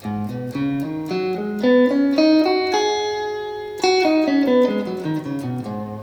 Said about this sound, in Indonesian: misalkan kayak kayak pentatonik deh misalkan pentatonik uh, eh, pentatonik misalkan dari atas ke bawah